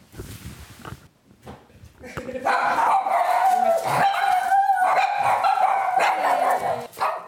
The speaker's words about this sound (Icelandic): Við byrjum í einbillishúsi í Grafavogi þar sem formaður kavalérklúpsins á Íslandi býr. Það eru hundar.